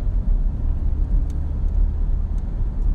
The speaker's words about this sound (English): boy, the bus had to come out in the middle of nowhere. Right about now.